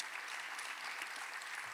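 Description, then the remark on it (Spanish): Scattered, modest applause from part of an audience, a steady patter of claps at moderate volume with a brief sharper clap near the end, no voices over it. “Entiendo que la mitad aplaudieron, la otra no, pero lo voy a decir otra vez.”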